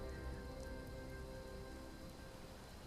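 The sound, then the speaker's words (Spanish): Soft, steady rain pattering on a surface, a faint continuous hiss with scattered drops that eases slightly toward the end. No voices. “cuando la lluvia empieza a cesar, cuando la noche empieza a retroceder”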